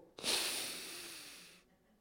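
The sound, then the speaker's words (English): A single deep, audible breath, fairly loud, a steady airy rush lasting about a second and a half before fading out, with no talking. “When you start to breathe deeply, is when you give more oxygen to the brain.”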